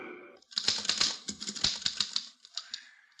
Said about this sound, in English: Here's a typewriter. Your secretary uses one. Perhaps your son or daughter write their school essays on a machine like this. This one is used to write a letter.